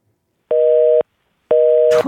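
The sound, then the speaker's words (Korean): Two steady telephone line tones as the third phone call connects, each about half a second long with an even gap between them, loud; a short burst of noise cuts in at the end of the second beep. “자 3번 전화 열렸습니다 전화.”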